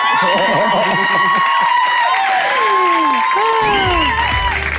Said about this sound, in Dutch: Misschien nog één applaus voor de toekomstige leading lady van Willy